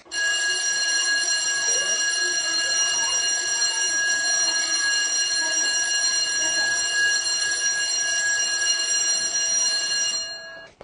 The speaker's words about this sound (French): Arrivé à l'école, sonnerie et bruit d'enfants qui entrent en classe.